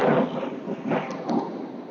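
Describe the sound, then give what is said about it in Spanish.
Wind buffets a microphone outdoors in a park in Houston while a person rides a bicycle, in a few loud gusts, each a deep, muffled rumble that swells and fades, with a steady low roar between them and no one speaking. “Y disculpen si se escucha mucho aire de repente”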